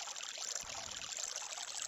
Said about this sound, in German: Ist das schön, der Bach. Ach. Schön entspannt, oder Leute? Ja, ich weiß, der loopt ein bisschen, aber ja, es ist halt ein Loopbach.